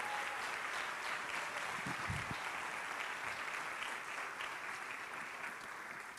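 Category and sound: crowd, church audience applauding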